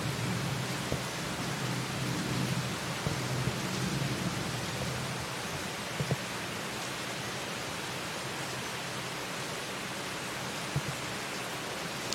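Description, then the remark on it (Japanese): Steady, dense hiss of heavy afternoon rain in Singapore pours continuously, with a faint low rumble of thunder beneath it early on; no one speaks. “雷の音とか聞こえます”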